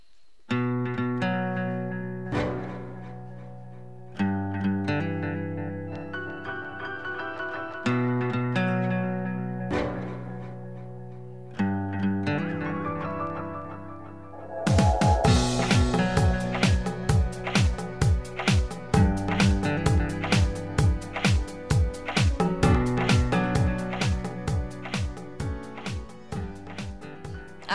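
Band music plays with no talking: swelling, sustained chords pulse in repeated phrases, then halfway through a loud, driving rhythmic beat kicks in with sharp, steady hits.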